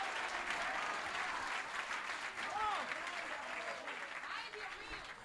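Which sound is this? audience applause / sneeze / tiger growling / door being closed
audience applause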